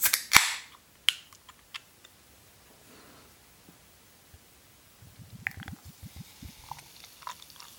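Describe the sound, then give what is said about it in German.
A chilled can of Orange Velvet IPA from Lerwig, Norway, snaps open with a sharp crack and brief hiss, followed by a softer click, a quiet pause, then a run of light fizzing, ticking sounds. “Und das mache ich jetzt auch erstmal auf und dann reden wir erst noch mal ein bisschen.”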